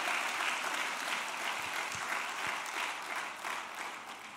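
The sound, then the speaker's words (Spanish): Sustained church audience applause given for Jesus during a sermon, a dense steady wash of many hands clapping for several seconds, with faint cheering mixed in, tapering off slightly at the end. “Ah, den un aplauso a Jesús.”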